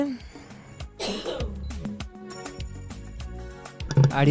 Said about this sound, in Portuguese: diga, sai, sai, sai, sai, sai, sai, tosse. Sai tosse que este corpo não te pertence.